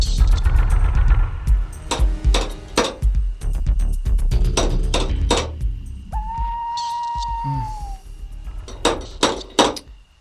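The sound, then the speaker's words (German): A small metal fox-shaped door knocker on a house's front door clacks repeatedly in uneven bursts of sharp, ringing knocks, with a short steady whistling tone sounding briefly in the middle. No one speaks. “Dort entdeckten sie, dass Babette Eberle keine elektrische Klingel, sondern einen kleinen Metallfuchs als Türklopfer besaß.”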